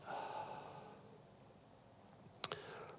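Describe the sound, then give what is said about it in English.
A long, deep exhaling breath during a guided breathing moment in a church service, soft, drifting out over about two seconds, followed by a small click and a quieter breathy tail. “And just doing that one more time, taking a deep breath in, breathing in the Holy Spirit, taking a deep breath out.”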